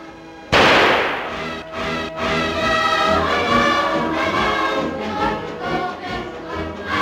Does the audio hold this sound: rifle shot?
yes